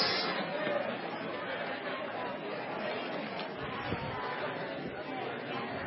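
Many people chat at once, a steady overlapping murmur of many voices with no single speaker standing out, as audience members turn to greet one another before a morning event.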